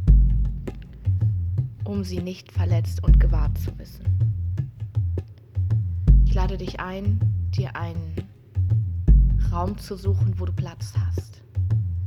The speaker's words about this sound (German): Du hörst im Hintergrund die Trommeln bereits schlagen, die dich rufen, deine wilde Frau zu leben zu begrüßen, herauszuholen und in dir zu stärken.